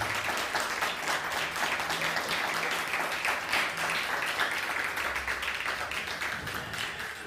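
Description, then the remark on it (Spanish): Sustained audience applause, a dense wash of many hands clapping at steady loudness for several seconds, with no voices rising above it. “Ahora sí, un fuerte aplauso nuevamente, por favor, si es tan amable.”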